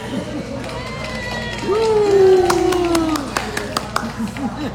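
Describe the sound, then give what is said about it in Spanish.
Applause closing an interview: a steady crowd-like rush with a brief sliding tone, then a scattering of sharp, separate claps in the last couple of seconds, moderately loud. “Los aplausos.”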